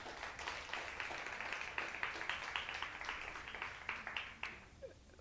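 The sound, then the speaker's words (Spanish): An audience breaks into dense, sustained applause for the Lord during a morning service, many hands clapping at once in a steady crackling wash that fades out near the end. “un aplauso más al Señor en esta mañana.”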